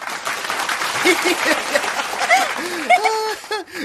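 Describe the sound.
A room full of people clapping in dense, sustained applause, with scattered cheers and a few excited high-pitched voices rising over the steady patter of hands.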